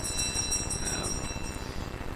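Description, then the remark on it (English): A bell rings continuously for a couple of seconds, a steady, rapid metallic ringing with a bright high tone and no pauses; it is the second bell. No one speaks over it. “that's the second bell already.”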